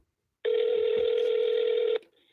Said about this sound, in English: Dude, if you're gonna if you're gonna be scared, man, then don't punch in your phone number.